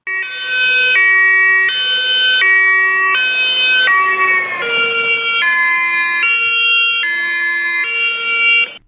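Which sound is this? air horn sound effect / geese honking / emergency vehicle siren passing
emergency vehicle siren passing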